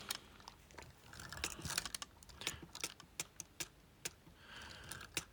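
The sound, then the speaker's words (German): Keys on a Focus 40 braille display are pressed in a quick, irregular series of crisp clicks, some pairs tapping in fast succession, as the sleep mode is set back to 30 minutes and dot 8 exits the menu. No talking. “Ich stelle wieder auf 30 und mit Punkt 8 gehe ich wieder aus dem Menü nach draußen.”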